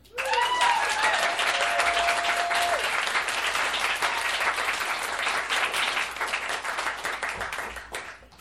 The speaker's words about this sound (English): Please applaud now.